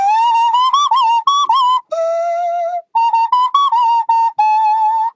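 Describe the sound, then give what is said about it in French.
A nose flute, blown through the nose while the mouth shapes the tone, plays a bright, whistle-like melody, with sliding, warbling notes grouped into short phrases separated by brief pauses. No voices are heard. “C'est un petit objet en plastique, en bois ou en métal selon les modèles, spécialement configuré pour s'adapter au nez et à la bouche du musicien.”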